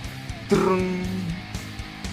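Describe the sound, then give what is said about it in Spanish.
One acoustic guitar strum rings out fairly loud, its chord sustaining and fading over about a second, followed by a few faint, soft plucks or taps. “Oye, no mames, eso no es una canción, solo tocaste la guitarra lo pendejo.”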